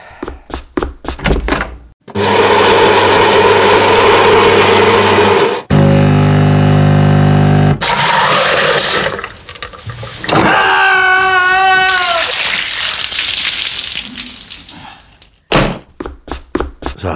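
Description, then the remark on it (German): A coffee machine runs through a loud brewing cycle: a few clicks, then grinding and a deep pumping hum, hissing and gurgling with warbling tones as coffee dispenses, and closing clicks. “Irgendwie klingt die Kaffeemaschine seltsam.”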